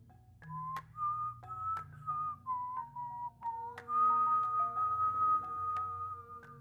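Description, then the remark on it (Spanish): The legendary Silbón's whistling: a slow, wavering whistled melody running through the notes from high to low, with sustained pure tones that glide between pitches, heard clearly over a low droning background, giving an eerie, haunting feel. “Pero si lo oyes a lo lejos, huye a un lugar seguro. En especial, si eres un hombre mujeriego, el silbón irá por ti.”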